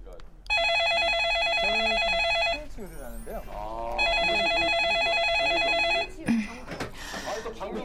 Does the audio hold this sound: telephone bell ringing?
yes